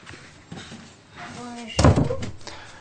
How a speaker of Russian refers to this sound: Сейчас я дверь закрою.